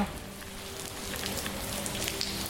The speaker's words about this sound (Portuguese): A chuva apertou e o luau precisou ser adaptado.